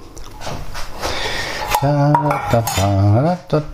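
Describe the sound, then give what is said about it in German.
Dishes and cutlery clatter as cat food is prepared, a busy metallic rattling for a couple of seconds, before a drawn-out voiced sound takes over near the end. “Geben wir den Katzen mal zu fressen.”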